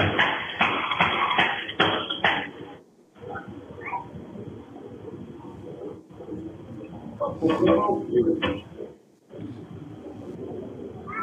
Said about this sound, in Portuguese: Mais uma vez os tiros, hein?